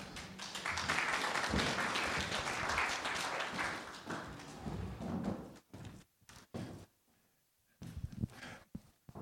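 A burst of audience applause, dense and steady for about five seconds, then thinning into scattered individual claps before fading out with a few last claps.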